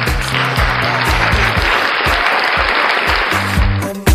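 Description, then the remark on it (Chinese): Dense, steady applause from a crowd fills about four seconds at an even loudness, layered over a bouncy, stepping bass line of background music, then cuts off abruptly. “掌声欢迎本期的美女嘉宾主播，来自 FM 四零三七八三那些你不知道的好歌主播。”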